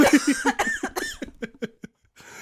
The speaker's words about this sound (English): oh no, that's gonna make me cough. Oh no.